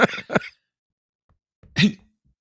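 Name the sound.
coughing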